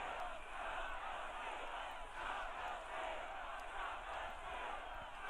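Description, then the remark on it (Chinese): A large rally crowd chants "Stop the steal" in unison, a loud, dense roar of many voices rising and falling in steady rhythmic swells, with no single voice standing out. “民众大喊停止窃选。”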